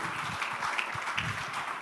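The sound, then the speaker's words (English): A crowd claps steadily, a dense, crackling wash of many hands at an even, moderate level that holds throughout, with no voices cutting through. “I thought you were clapping again.”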